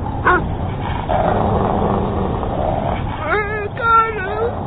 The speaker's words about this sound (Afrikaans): Die volgende oomblik hoor hulle die harde geblaf en geknor hier by hulle.